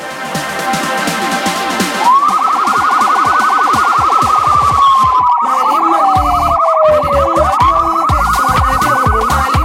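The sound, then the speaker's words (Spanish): A loud siren wails, holding a high tone that slowly slides down in pitch and then jumps back up, over a busy, clattering background that fills the whole stretch. “Pero bueno, vamos a pensar que esa sirena la usan para fritacos and a big surprise.”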